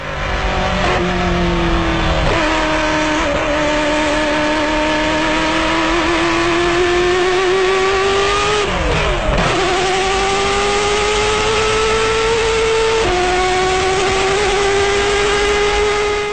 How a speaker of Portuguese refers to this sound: esse filme é de uma Ferrari F40 LM dirigida por Jacques Lafitte